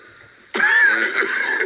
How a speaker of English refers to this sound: Some cough you've got? What cough? Listen to you.